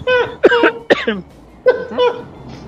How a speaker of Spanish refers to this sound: Bueno, bueno, está tosiendo la persona que dijo el audio, se la pasó tosiendo todo el audio, o sea.